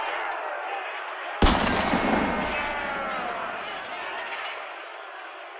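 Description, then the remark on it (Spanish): A single loud, sharp crack of gunfire bursts out as troops begin clashing, over a dense wash of background commotion, then trails off in a slow, rumbling echo. “Oye, mira, mira, se están empezando a enfrentar. Vamos a ver, vamos a ver. vamos, Alejados, alejados no, porque nos puede caer un balazo.”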